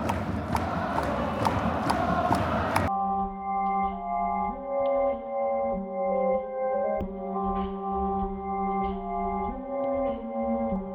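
A stadium crowd of Marinos football supporters at a Saturday night derby, after rain has stopped, roars with rhythmic beats, then settles into a loud, sustained chant sung in unison, the melody rising and falling steadily with no one talking over it.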